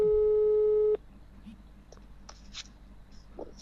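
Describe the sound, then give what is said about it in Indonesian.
A loud, steady electronic telephone tone of an unanswered phone call holds for about a second and then cuts off, leaving faint background noise with a few soft clicks and rustles. “Tidak diangkat.”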